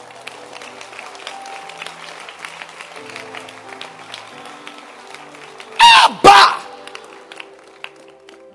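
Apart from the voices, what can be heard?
audience clapping hands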